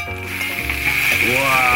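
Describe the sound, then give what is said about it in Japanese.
Pork belly sizzles steadily in sesame oil in a frying pan on a cooking heater set to heat level 7, a loud continuous crackling hiss, with a voice-like exclamation rising over it toward the end. “おっとここで豚バラを投入していく うわ”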